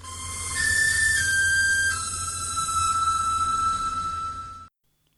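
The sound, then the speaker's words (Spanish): A four-note whistled melody, the notes Do, La, Sol, Mi, played in a video game to call Songbird, the mechanical bird guarding Elizabeth. A low note leaps up, dips slightly, then settles onto a long held final tone, all over a steady low droning hum. “que corresponden a los nombres en nomenclatura anglosajona de las letras Do, La, Sol y Mi precisamente la sucesión que hay que tocar para llamar a Songbird, el pájaro mecánico custodio de Elizabeth.”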